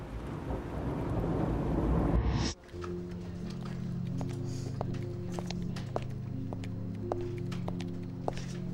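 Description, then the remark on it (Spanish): Dense, steady rain pours down on the ground with a deep rumble for a couple of seconds, then fades back beneath sustained ringing tones of cathedral bells pealing in the distance and scattered sharp drips or ticks. “Su repicar se confunden con el ruido de la lluvia que cae en el suelo.”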